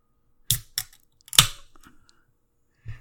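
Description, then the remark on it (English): A few sharp metallic clicks and a crisp crack, like a beer can tab being pulled open, followed by a brief fizzy hiss and a faint final tap. No one speaks. “That was a good crack.”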